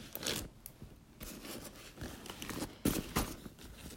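A zippered Trapper Keeper binder is opened: a series of short rasping, zipper-like bursts mixed with rustling, crinkly handling noises and a few sharper snaps, with no voices.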